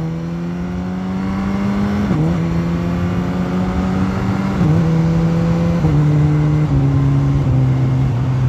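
A motorcycle engine drones loudly and steadily while accelerating, its pitch stepping down abruptly with each of about four rapid quickshifter gear changes. No one speaks.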